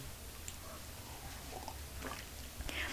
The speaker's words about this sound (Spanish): Después de este sorbito sin una gota de azúcar